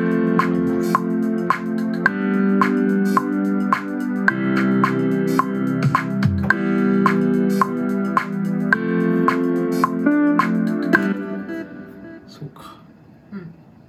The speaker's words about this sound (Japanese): ちょっと最初の4小節だけ繰り返しの再生にソフトの設定をして再生しますねこれにちょっと合わせてみたい